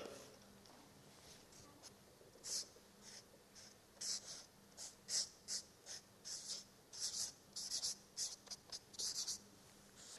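A blue pen scratches across paper in a quick, irregular series of short strokes, fairly quiet, with a faint steady hum underneath and no talking.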